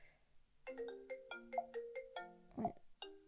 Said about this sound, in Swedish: nu ringer det. Ja, så det var min sambo.